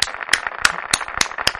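crowd, applause clapping

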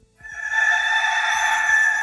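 sound effect, autotuned rooster crowing

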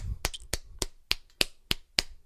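human body sound, hand clapping

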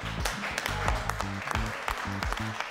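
crowd, round of applause

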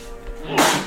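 human body sound, sneeze

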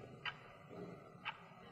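household object, clock ticking

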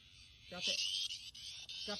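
insect, cicada buzzing loudly

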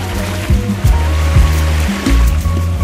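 nature, ocean waves

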